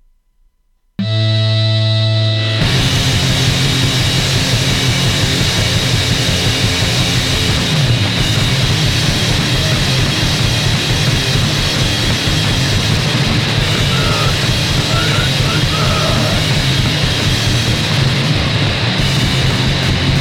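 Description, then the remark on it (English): A loud, dense wall of distorted music kicks in after a second of silence and stays relentless throughout, with a harsh, saturated texture and buried, muffled growling vocals. “this may sound like a wall of noise to many of you out there, but those who like their DB rough and ready with a vocalist who sounds like he's got a sock in his mouth, this sucker punch you in the face release is definitely for you.”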